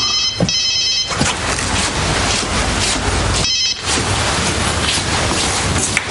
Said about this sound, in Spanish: Suena el móvil de George.